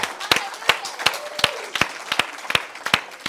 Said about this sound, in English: Let's give him a big round of applause, can we? Because he's God.